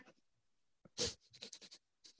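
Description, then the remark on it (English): A person vocally imitates a rabbit: one sharp, breathy huff followed by a quick run of short snuffling puffs, fairly loud, with no talking. “rabbit is more like”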